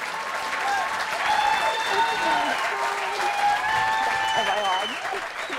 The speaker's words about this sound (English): That's, the, the applause is welcome.